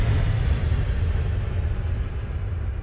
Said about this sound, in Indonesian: Kebetulan hari ini aduh ini suara cekson bengkel juga mengganggu.